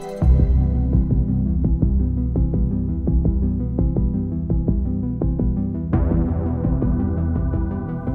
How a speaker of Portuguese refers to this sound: estamos a ouvir aqui de fundo eh, o tema que dá começo a Stranger Things